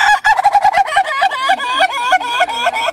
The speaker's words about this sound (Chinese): 早上鸡叫了